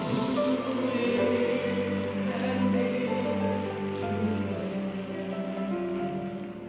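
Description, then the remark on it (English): An audience applauds as praise to God after a healing, a steady, dense wash of clapping that holds strong for several seconds and then eases off slightly toward the end, with no voices heard over it. “Can you give him a loud please, praise, applause?”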